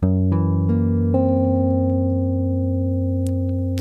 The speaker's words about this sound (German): Da klingt es besonders toll, wenn man den Tritonus-Vertretungsakkord nimmt, nämlich Gess 7.